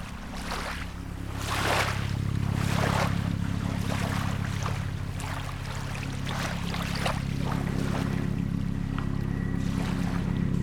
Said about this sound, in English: an awful lot of helicopter traffic today. Mm, probably because the weather is warming up. Tourist season is picking up, and so are the sky tours of the city.